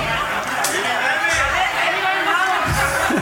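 An audience calls out its guess at an answer all at once in a loud, overlapping burst of shouting and chatter, sustained for a few seconds without any single clear speaker.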